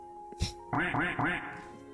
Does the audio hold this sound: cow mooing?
no